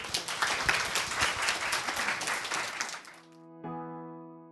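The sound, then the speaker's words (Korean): An audience applauds as a newspaper reporter is invited to the front to say a few words, with dense, steady clapping for about three seconds before it cuts off abruptly, followed by a sustained, ringing musical tone. “잠깐 한 말씀 해주시겠습니다. 예, 박수.”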